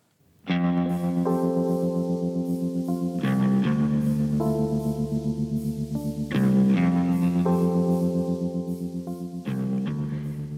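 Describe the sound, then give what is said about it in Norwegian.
Moody instrumental theme music of an early-1990s cult TV drama series, with sustained, effect-laden synth chords that shift every few seconds over a steady low drone, rich with echo and reverb; no voices. “Dette er lyden av serien som gjorde at folk satt klistra til TV-skjermen, og som ble et vendepunkt for hvordan vi så på TV-serier.”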